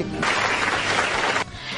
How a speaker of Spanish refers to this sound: Le damos un aplauso y le dejamos que se vaya.